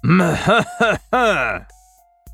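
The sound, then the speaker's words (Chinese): A man coughs and clears his throat in three loud, voiced bursts with a groaning, throaty tone as Second Uncle (二叔) coughs, then a short silence and a brief click at the end. “我话还没说完呢，二叔就咳嗽了起来，那眼神之中透着杀机。”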